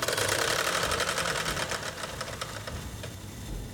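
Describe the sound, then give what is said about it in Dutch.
A small steam engine chugs into motion as its tap is opened and steam flows into its cylinders. Its rapid mechanical clatter and hiss pulse steadily, loud at first and easing slightly as it keeps running, with no one talking. “Als hij fluit, nu dan ga ik is het kraantje open opendraaien. Dus die stoom die komt dus nu in die cilindertjes dus terecht.”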